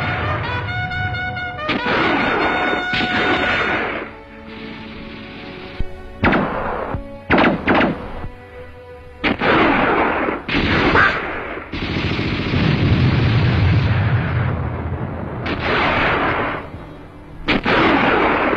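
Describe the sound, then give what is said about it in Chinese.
Loud, chaotic battle sounds: rapid bursts of gunfire crackle over repeated booming explosions, with a few brief pauses between volleys and rumbling blasts filling much of the stretch. “战斗打响了，枪声、爆炸声响成一片呐！”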